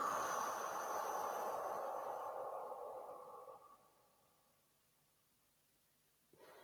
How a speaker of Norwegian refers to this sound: Vi puster inn. og holder litt. Og så puster vi ut.